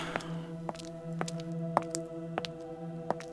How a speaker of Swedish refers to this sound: Och du kan höra Kommer fotsteg nu röra sig där uppe.